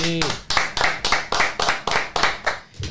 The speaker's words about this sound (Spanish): Un aplauso para él.